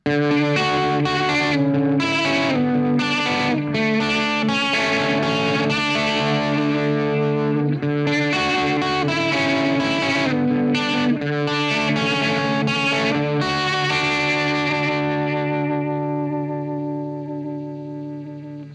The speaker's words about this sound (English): it almost sounds like a broken, warbly, almost vinyl vibrato effect that I really like. This is using the same signal chain.